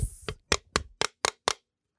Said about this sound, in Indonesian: jelek banget suaranya suara kaleng kosong birnya habis nih